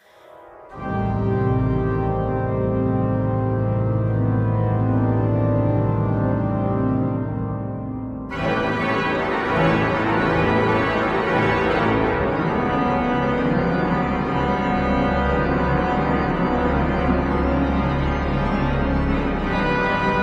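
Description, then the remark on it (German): Loud pipe organ music in a church, with sustained, resonant chords that suddenly swell into a fuller, brighter registration partway through, playing alone without any voices. “wo man so orchestrale Klangform hat und auch wo dieser Kirchenraum so ein bisschen diese Aura mitgibt”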